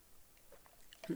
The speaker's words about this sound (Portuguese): E agora um golinho